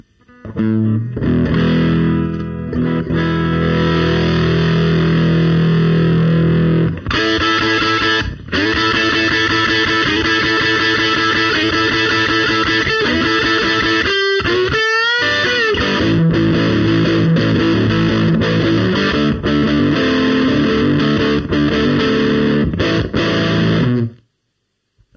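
Loud, crunchy electric guitar riffs played through an overdriven amp, with sustained distorted chords and a few quick slides, ringing out steadily before cutting off near the end.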